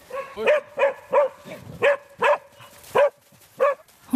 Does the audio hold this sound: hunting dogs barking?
yes